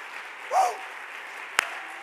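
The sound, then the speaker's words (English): A crowd claps their hands to the Lord, a dense, even patter of hands, with a brief raised voice early on and one sharp, louder clap standing out near the end. “Can we clap our hands to the Lord?”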